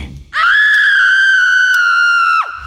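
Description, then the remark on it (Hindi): A woman lets out a single loud, high-pitched scream lasting about two seconds, holding steady before dropping off sharply at the end, with no talking. “उसकी आंखों के सामने अपनी लाल लाल आंखें लाके वापस चीखी”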